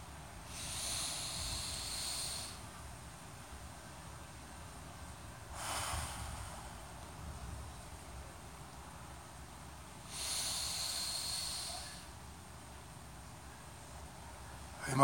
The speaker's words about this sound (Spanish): Vamos a salir de nuestra meditación juntos, respirando una vez más, tres veces.